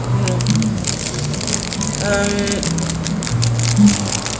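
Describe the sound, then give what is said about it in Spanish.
Crunchy chewing of a chocolate-covered coffee bean, a steady gritty crackle lasting several seconds over a low hum, with a brief murmured vocal tone partway through. “Eh, ahorita me estoy comiendo un granito de café con cubierto de chocolate que está muy bueno, de aquí del sorbo.”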